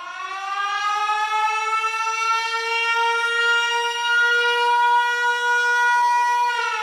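A loud, steady warning siren drones continuously with a rich harmonic tone, holding nearly constant pitch throughout with only a slight rise and fall, and no voices.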